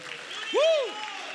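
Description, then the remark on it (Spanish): An audience at a worship service applauds the presence of the Lord in a steady, even wash of clapping, while one voice rises and falls in a brief sung or cheering cry midway through. “Aplaude la presencia del Señor en este día.”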